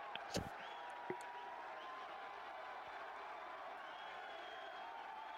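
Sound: wrestling crowd cheering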